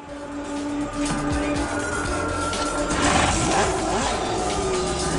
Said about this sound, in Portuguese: Está vendo aí os motores roncando da Fórmula 1?